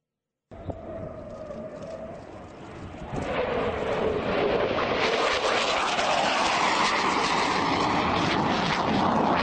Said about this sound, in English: An F 15 fighter jet there intercepting a civilian aircraft as it was entering restricted airspace in New York City yesterday while President Joe Biden was in the Big Apple to give a speech at the United Nations,